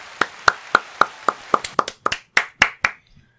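Hands clapping to welcome a guest on a show: about a dozen sharp, crisp claps in a quick, fairly steady rhythm that loosens slightly toward the end, then stops. No one speaks over it.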